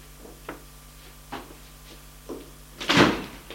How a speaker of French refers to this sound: La porte s'est ouverte.